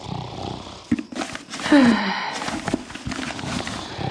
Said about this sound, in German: Mama und Papa schlafen noch. Papa schnarcht. Und Mama pustet dazu.